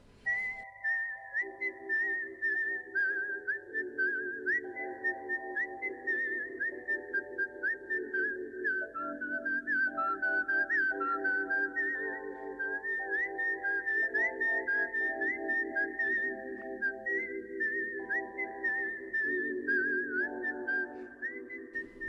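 A lone, clear whistled film theme melody, whistled by Daryl Hannah in a scene of the film Kill Bill, runs steadily and prominently over a low sustained instrumental backing, rising and falling through a tune for the whole stretch, with no talking.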